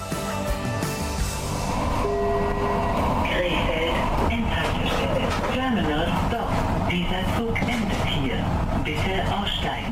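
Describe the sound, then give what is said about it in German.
A train rumbles into a station at the end of its run, a steady loud mechanical roar with whining tones rising and falling as it slows, while indistinct voices murmur in the background. “Und nicht nur dieser Zug endet hier, sondern auch diese Ausgabe des Magazins Krefeld Mix von Radio Kufa in Zusammenarbeit mit der Caritas in Krefeld.”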